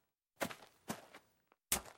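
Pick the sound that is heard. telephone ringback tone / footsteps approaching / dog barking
footsteps approaching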